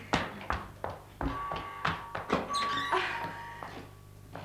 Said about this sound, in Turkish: İki saattir kapıyı çalıyorum.